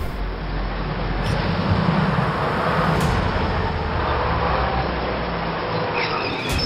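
A steady, continuous rumble of a car driving along a road beside a railway station, heading out of town toward the Jembel settlement, with broad road and engine noise holding at an even level throughout and no voices.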